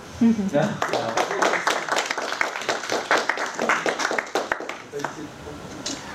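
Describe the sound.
Audience applause: a dense, irregular patter of many hands clapping, holding steady for about six seconds before thinning out, with a few voices murmuring beneath it.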